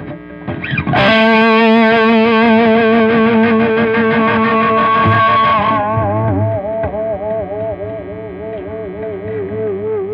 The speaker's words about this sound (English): Audio feedback, in which a high pitched electric noise can be heard, was used by composers such as Robert Ashley in the early 60s.